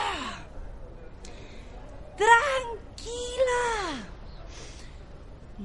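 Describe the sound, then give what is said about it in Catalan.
Two sharp, panicked gasping breaths, loud, each sliding downward in a strained voiced moan, from a person having an anxiety attack at an airport terminal, with a brief spoken exclamation. “És un atac d'angoixa com qualsevol altre.”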